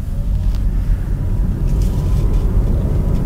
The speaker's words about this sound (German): Ich drehe den Fahrstufenschalter hinterm Lenkrad auf D und los geht's.